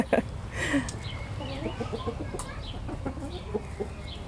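A flock of mixed-breed hens with a Swedish flower hen rooster clucks continuously, overlapping short throaty calls in an uneven rhythm, with a few sharper squawks over a steady farmyard background, in Tivoli park in Kristianstad, Sweden.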